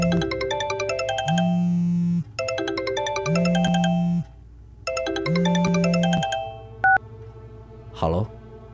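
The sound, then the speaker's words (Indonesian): A mobile phone ringtone plays a repeating electronic melody three times in clear, loud bursts, then cuts off, followed by a short beep and a brief thump. “Handphone?”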